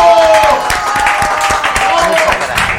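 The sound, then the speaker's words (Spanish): An audience breaks into sustained applause for a woman on a programme, a dense, steady wash of many hands clapping at full volume, with faint voices and cheering mixed in throughout. “Aplausos a esta mujer maravillosa.”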